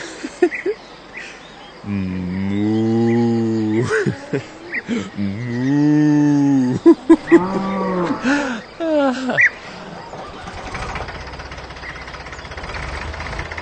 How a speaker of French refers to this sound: Natur. Natur pur. Ist das schön. Und die Kuh macht Mu.